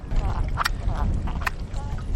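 Continuous wet squelching and slithering of female eels, including capitone and small eels, writhing in slime, with a low churning rumble and scattered short, slick pops throughout.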